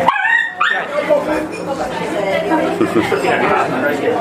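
A small dog yips and whimpers near the start, then a busy dog-friendly café murmur of overlapping chatter fills the rest, with the dog's short sounds occasionally rising above the crowd.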